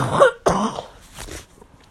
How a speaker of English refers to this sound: oh my goodness. Woo, excuse me. That was like a sneeze and a cough. I don't know if any of you guys have done that before, but I just did it today.